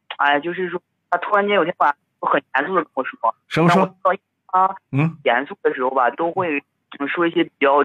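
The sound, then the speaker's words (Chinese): A phone call with a thin, narrowband caller's voice that keeps breaking up. Words arrive in short clipped bursts separated by abrupt dropouts to silence, and a second voice briefly cuts in. “不，对不起，你这个电话怎么断断续续的？”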